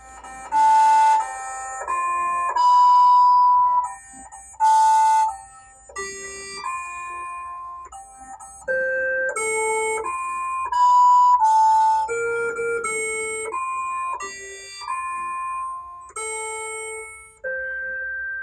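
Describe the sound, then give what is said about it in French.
A slow melody played on Mars on 6 August 2013 by NASA's Curiosity rover vibrating its resonance tubes, used to filter soil samples: buzzy, harmonic-rich mechanical tones, each note sustained and stepping up and down in pitch, with a couple of brief noisy bursts and no voices. “la NASA programme les tubes de résonance de Curiosity, utilisés pour filtrer les échantillons de sol, pour chanter Happy Birthday”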